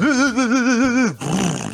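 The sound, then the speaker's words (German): A car engine revs with a loud, buzzing roar whose pitch wobbles rapidly up and down for about a second, then breaks into a harsh, noisy rumble. No one speaks. “es ist physikalisch wahrscheinlich gar nicht, äh, gar nicht möglich, dass der Motor so klingt, oder?”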